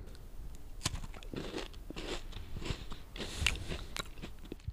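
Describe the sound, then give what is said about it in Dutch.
Crunching as someone bites into a chocolate-coated biscuit with a light caramel flavour and a filling of vanilla, butter and chocolate, a sharp crack followed by several seconds of crisp, irregular chewing with no talking. “In mijn eerste hapje, ik de karamel nog niet echt.”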